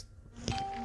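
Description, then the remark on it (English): A mobile phone notification chimes once with a short, bright electronic tone that rings on steadily after a soft tap, fairly quiet, with no talking. “hello, that's my phone pinging.”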